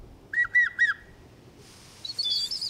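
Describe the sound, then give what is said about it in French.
A person whistles three short, soft, mournful notes in quick succession, imitating the call of a Eurasian bullfinch, followed by a brief burst of higher, thinner twittering. Fairly quiet, with no talking. “J'appelle le bouvreuil pivoine, c'est un petit oiseau qui a un sifflement un peu triste, même pas dingue en virtuosité, mais l'oiseau est très très joli.”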